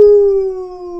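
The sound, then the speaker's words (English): A dog lets out one sustained, fairly loud howl that holds a steady pitch and sags slightly lower as it fades over about a second, with no talking. “just wanted to howl because you guys went oh.”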